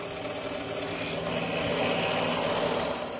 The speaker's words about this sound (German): Bevor die beiden mit dem eigentlichen Drehen beginnen können, müssen sie das Holz vorbereiten. Sie sägen, Hobeln und Bohren.